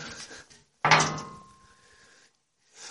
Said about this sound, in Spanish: Voy a intentar a ver este cerrojo, que es potente, a ver si de alguna manera se pudiera abrir